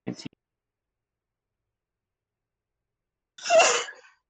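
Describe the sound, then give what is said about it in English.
A single sharp sneeze bursts out near the end after a stretch of silence, fairly loud, preceded by a brief faint vocal sound at the very start. “Bless you.”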